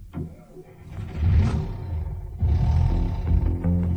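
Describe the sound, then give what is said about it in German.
A car engine turns over and catches, then roars as it revs up, its low rumble swelling loudly in two surges. “Da steigen wir doch glatt ins Auto ein und nehmen die schnellste Straße, die Autobahn.”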